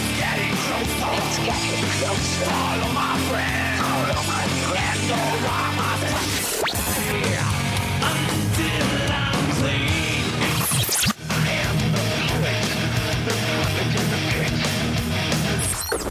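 A loud, dense musical jingle plays for about sixteen seconds, full-bodied with steady rhythm and bright highs, briefly dropping out around two-thirds through before resuming. No one talks over it.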